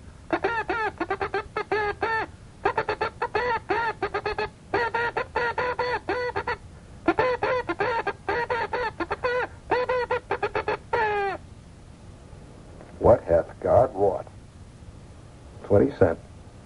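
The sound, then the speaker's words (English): A voice imitates Morse code (CW), rapidly vocalizing the message "What Hath God Wrought" as rhythmic runs of short and long beeps in grouped bursts with brief pauses, followed by a few words of speech. “You want to know how What Hath God Wrought sounds in code? You want me to send it to you?”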